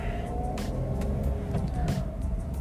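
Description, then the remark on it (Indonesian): Steady low rumble of a manual-transmission car being driven while turning around, with a continuous engine drone and a couple of brief hissing swells, heard from inside the vehicle with no one talking. “gue harus muter balik bentar ya soalnya pakai mobil manual jadi kalau mau muter balik agak susah oke okay.”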